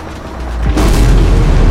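A loud rocket explosion erupts behind the position of Lieutenant Kamal's military vehicle, with a deep, rumbling boom that swells and lingers as a broad, roaring blast, sounding powerful with no voices present.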